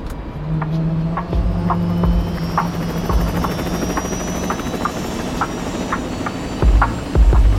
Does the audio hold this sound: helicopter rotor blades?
yes